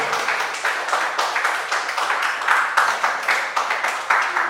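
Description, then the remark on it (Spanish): A church audience claps steadily, a dense sustained wash of many hands with a loose, rhythmic pulse running through it, loud and continuous from start to finish, as applause to God to welcome the Holy Spirit. “¿Y por qué no das un fuerte aplauso a Dios para dar la bienvenida al Espíritu Santo?”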